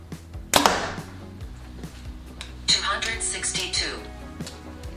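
A Mathews Tactic compound bow set at 29 inches draw and 70 pounds fires a 550 grain arrow in a speed test, with a sharp, loud twang and thump at the start, followed moments later by a bright, noisy burst as the arrow strikes, over a low steady hum.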